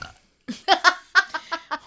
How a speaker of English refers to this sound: Can I make it through one podcast episode without burping? Please, God.